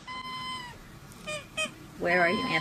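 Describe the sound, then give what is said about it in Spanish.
Whistling breath sounds from a boy who swallowed his dog's whistle, which sounds as he breathes in and out: a steady, thin high whistle, then two short squeaky chirps, then a louder, wavering whistle that bends in pitch, somewhat like a honk or meow. “se tragó el silbato de su perro”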